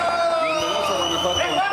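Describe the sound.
A loud crowd of boys shouting and cheering all at once, a dense, sustained wall of overlapping voices with rising whoops, continuous throughout, at an event with the governor in Guanajuato.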